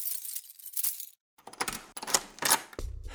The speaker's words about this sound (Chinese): 藏狐用最快的速度赶到了别墅，冲到了羚羊的房门口。藏狐掏出一把钥匙，插进了锁眼里。